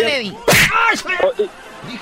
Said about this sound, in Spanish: dale una cachetada.